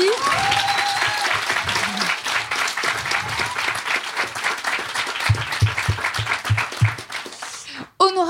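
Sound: audience applause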